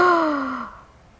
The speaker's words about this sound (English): Gasp. Imagine that. Oh my God.